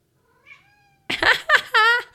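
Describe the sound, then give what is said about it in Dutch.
A cat named Luna meows from inside a kitchen drawer: first a faint, thin call, then a burst of three louder, insistent meows in quick succession, the last one drawn out and wavering. No one speaks. “ik denk dat onze kat in de keukenlaar zit.”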